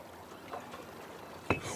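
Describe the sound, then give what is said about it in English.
Gentle lake water laps softly against a small boat, a quiet steady wash broken near the end by a single sharp knock against the hull. “Meanwhile, a bottle is gently bobbing on the lake's rippling surface, heading towards the boat.”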